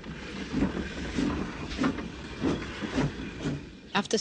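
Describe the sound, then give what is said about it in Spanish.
A 1943 train of cattle wagons carrying deported Jews rolls along the rails with a steady clickety-clack, regular thumps a little over half a second apart over a continuous hissing rumble, moderately loud. “El tren se detuvo y ladraron unos perros.”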